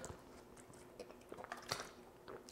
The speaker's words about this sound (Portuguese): Deixa eu beber uma água aqui, senão vou morrer.